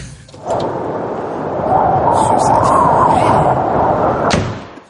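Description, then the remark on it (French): A loud, rumbling burst of noise with a drawn-out creaking whine in the middle, then a sharp bang near the end as a door swings open and slams shut. “Et il y a plein de portes là comme celle-ci”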